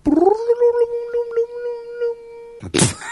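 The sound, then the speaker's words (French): A voice imitates a time-travel sound effect: a rising tone that settles into a long, steady, slightly wavering hum, cut off by a short breathy burst of noise at the end. “C'est le voyage dans le temps, c'est le bruit du voyage dans le temps.”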